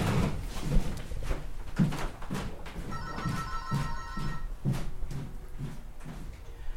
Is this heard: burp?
no